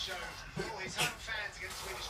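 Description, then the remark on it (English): A single quick sneeze bursts out partway through, short and fairly soft, against a low, steady background with no clear talking around it. “Bless you.”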